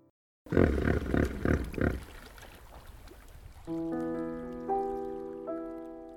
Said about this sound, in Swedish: Jag tänkte lägga på en ljudeffekt på en flodhäst här men har ingen aning om hur en flodhäst låter. Mm, kanske så här.